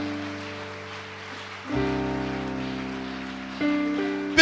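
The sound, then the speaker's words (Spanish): An audience claps hands in a dense, steady patter, heard alongside sustained keyboard chords that shift and swell partway through. No one speaks. “que esas palmas sean, hermano, porque le está provocando gozo.”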